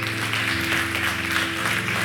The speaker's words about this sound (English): I don't think that that clap is good enough, so I need somebody to lose their minds right here. Come on, somebody. Come on, somebody. Let me hear you clap.